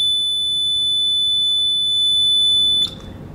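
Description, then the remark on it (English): A loud, high-pitched electronic beep from a heat stimulator used in pain testing sounds as one steady, unbroken tone for nearly three seconds, then cuts off abruptly into quiet room noise. No one speaks. “It'll be a loud beep been sound.”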